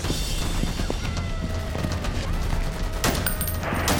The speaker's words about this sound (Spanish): Marino y el equipo antidisturbios se encaminaron hacia el violento y rotundo canto de pistolas, metralletas y rifles de las pandillas en disputa.